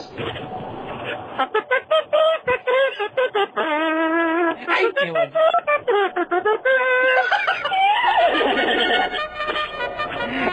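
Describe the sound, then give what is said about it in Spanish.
A person in Kentucky loudly imitates a horse's whinny, producing a long series of quavering, rapidly pulsing vocal calls that rise and fall over about ten seconds. “Como caballo, como caballo”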